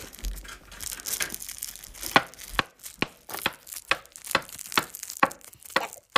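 A series of sharp knocks on a table, about a dozen irregular taps with a dry, hollow crack, over a faint crinkly rustle, with no voices.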